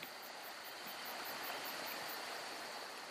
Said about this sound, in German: ihr kommt zu einem plätschernden Bach mit seinem dunklen violetten Wasser, auf dem kleine silberne Lichter funkeln.